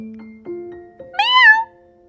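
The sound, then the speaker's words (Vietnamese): A cat lets out a single loud, drawn-out meow whose pitch rises and then falls, following a stretch of steady low humming tones with no talking. “Tôi la lên ý nói, phải thưởng cho tôi đấy.”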